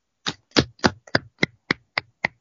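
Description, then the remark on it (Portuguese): A person claps their hands eight times in a steady, fairly quick rhythm. Each clap is sharp and crisp, with no talking in between. “Palmas bom, porque essa foi boa.”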